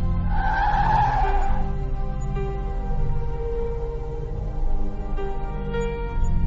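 A car skids to a halt, tires squealing sharply for about a second before the engine settles into a steady low idle that continues to the end.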